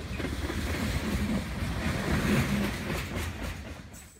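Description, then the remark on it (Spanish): A train bound for Aguas Calientes rumbles steadily along railway tracks, a continuous low roar with rattling, clattering wheel noise, consistent in loudness throughout, with no voices. “La posibilidad de admirar hermosos paisajes frente a tus ojos de forma tan rápida mientras escuchas el sonido del ferrocarril es una experiencia única.”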